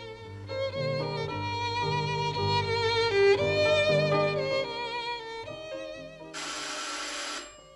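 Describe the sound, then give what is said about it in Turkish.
On a warm spring day, an electronic doorbell rings out a bright, multi-note melodic chime for several seconds, then a brief harsh buzzing burst follows. No one speaks. “Ilık bir bahar günü kapının çalınmasıyla başlamıştı her şey.”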